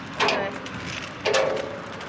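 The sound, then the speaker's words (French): A white cane taps twice against a metal bridge railing as the walker follows the railing to cross the bridge, each strike a sharp, ringing clank about a second apart, over a low background hum. “On entend contre la barrière.”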